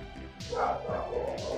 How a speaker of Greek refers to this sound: αυτό ήταν τα σκυλιά.